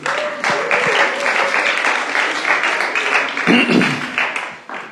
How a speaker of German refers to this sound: Und deswegen, ihr dürft euch mal selber einen Applaus geben.